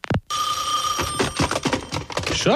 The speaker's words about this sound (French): Hey, là, le téléphone deux fois, c'est trop.